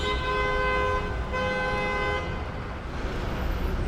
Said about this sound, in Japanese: クラクションが常になっています